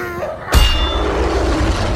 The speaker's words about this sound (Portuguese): Himmler com um feitiço, deu um impulso a mais para Toc, e o anão pôde acertar a cabeça da criatura com o um martelo bem nos dentes.